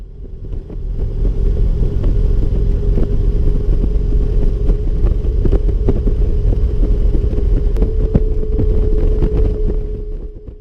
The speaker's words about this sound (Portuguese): geralmente o rolamento, quando ele abre, assim, quando é, ele, ele já tá ficando velho, ele começa a roncar. Parece um barulho, cara, é, parece um, um, instrumento de sopro montado na, na roda da frente.